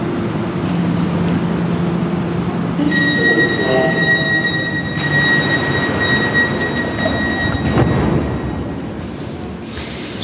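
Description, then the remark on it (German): A Munich U-Bahn subway train rumbles through Georg-Brauchle-Ring station with a steady low roar, high metallic squealing tones rising partway through as it brakes or pulls away, fairly loud, no voices. “gerade aus der U-Bahn raus, Station Georg Brauchlering.”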